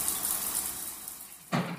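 Steady hiss of a running shower spraying water, close and continuous, with a brief splashing change near the end.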